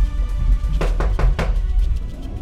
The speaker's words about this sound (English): Turning away from the desperate underwater battle, I shifted my attention to the knock on the door of the bedroom.